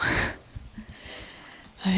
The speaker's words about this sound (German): So, jetzt schnaufe ich hier ein bisschen ins Mikro.